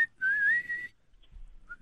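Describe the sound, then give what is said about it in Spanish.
A person whistles a single steady note that rises slightly in pitch, held for under a second, clear, followed by quiet with a faint brief chirp at the end. “no chifles, te está diciendo.”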